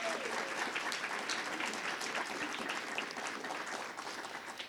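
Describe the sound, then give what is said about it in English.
Sustained audience applause at an evening celebration, a dense, steady wash of many hands clapping at a fairly loud, even level for nearly five seconds, tapering slightly toward the end, with no talking. “So anytime you feel you want to break into applause, I encourage you to do so.”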